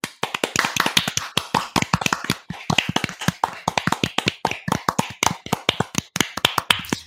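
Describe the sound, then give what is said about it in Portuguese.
A round of applause: a steady, brisk patter of sharp hand claps from a few people, fairly loud, continuing for several seconds with no voices. “Bom, agora vamos para nossa última notícia do momento salva de palmas.”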